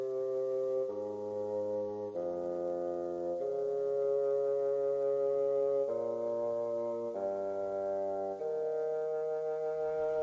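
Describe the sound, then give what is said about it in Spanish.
Holy Week chapel music (música de capilla), played on Radio Jaén, Cadena Ser: slow, solemn sustained chords from reed-like wind instruments, shifting from one held harmony to the next every second or so, steady in volume with no voices. “Pues son los sones de la música de capilla que nos viene de la mano de nuestro técnico de sonido Paco Arbona.”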